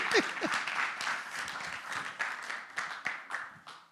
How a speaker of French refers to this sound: Merci pour ton assistance. Est-ce qu'on peut applaudir pour notre assistant